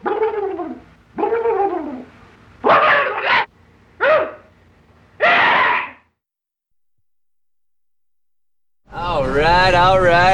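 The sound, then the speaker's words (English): A small dog gives a couple of rising, whiny whimpers, then several short sharp barks in an uneven rhythm, goes quiet for a few seconds, and ends with a louder, wavering whine. “Oh, oh little dog tapped it.”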